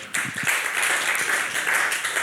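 Steady audience applause, a dense wash of many hands clapping at a fairly loud, even level for a couple of seconds, starting abruptly and holding without a break.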